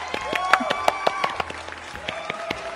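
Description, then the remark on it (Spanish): Applause: a scattering of sharp, irregular hand claps over a couple of seconds, fairly loud, with a faint murmur of voices underneath. “Así que aplauso, aplauso.”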